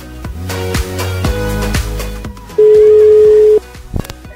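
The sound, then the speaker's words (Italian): A single loud, steady telephone ringing tone lasting about a second, sounded as a call to a listener connects and the line rings free, following a stretch of background music that fades under it. “Ecco, libero, suona libero.”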